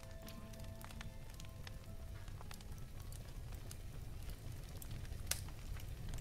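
A fire in a fireplace crackles steadily over a low, continuous rumble, with scattered sharp pops and snaps breaking through at irregular moments. It is moderately loud, with no voices.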